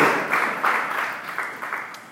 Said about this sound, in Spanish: Vamos a darle un aplauso al Espíritu Santo. Gloria a Dios.